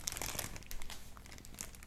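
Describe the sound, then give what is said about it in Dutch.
Crackly crumpling of a small paper wrapper being thrown away, a burst of sharp crinkles at first that thins into softer, scattered rustles over about two seconds, with no voices. “Nog een papiertje, gooi ik weg.”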